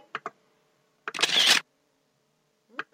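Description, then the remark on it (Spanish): A phone camera shutter clicks loudly while taking a photo of a person's haircut: a quick double tick, then a longer whirring snap around the middle, followed by another pair of small clicks at the end. No one speaks. “lo pueden ver, pero después le una foto y va a aparecer ahí en Spotify”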